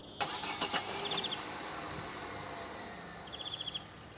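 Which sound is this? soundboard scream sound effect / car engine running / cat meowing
car engine running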